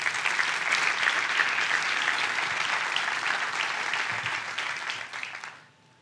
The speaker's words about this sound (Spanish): Le puede dar un aplauso a Dios por eso.